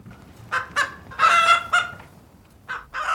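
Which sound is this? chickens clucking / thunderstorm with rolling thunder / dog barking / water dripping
chickens clucking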